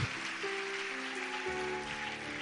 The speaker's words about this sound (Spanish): Vamos a darle un fuerte aplauso a Jesús, a Cristo.